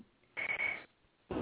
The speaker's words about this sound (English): you're breaking up.